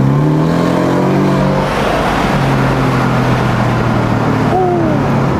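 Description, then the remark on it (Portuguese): A powerful 390-horsepower sports car engine accelerates, a loud, continuous roar with layered droning tones that hold steady, then climb sharply in pitch near the end. “É potente o bicho. Ela tem 390 cavalos, né?”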